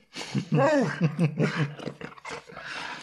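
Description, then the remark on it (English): A puppy growls in a string of short, rumbling bursts with whiny rising and falling pitch, lasting about three seconds without pause. “Puppy dog.”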